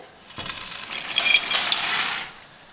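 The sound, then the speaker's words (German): Dry pasta pours into a pot of cooking water in a steady rattling rush lasting about two seconds, a dense clatter of small hard pieces with brief brighter clinks, fairly loud. “Da das können Wasser. die Nudeln rein.”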